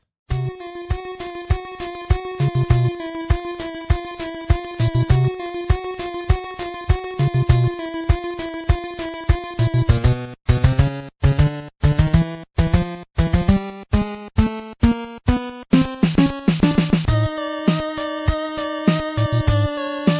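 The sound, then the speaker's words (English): An instrumental theme tune for the evil character Jaquio: a steady pulsing riff of repeated bright synth notes, then a choppy staccato melody stepping up and down before settling on a held tone. Loud, no voices. “Uh, essentially his theme.”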